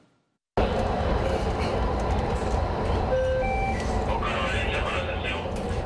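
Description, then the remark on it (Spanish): A Panama Metro Line 2 train runs on the newly inaugurated branch to Tocumen International Airport with a steady, loud rumble, broken partway through by a short series of electronic chime tones, with muffled voices faintly underneath. “De esta forma pusieron en marcha los trenes que extenderán la conexión para los usuarios.”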